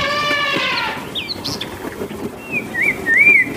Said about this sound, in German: die Vögel